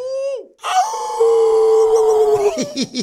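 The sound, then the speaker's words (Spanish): A person's voice imitates a broody hen with a loud, strained, drawn-out squawk, alone, ending in a few short choppy hen-like clucks. “Parece gallina culeca güey.”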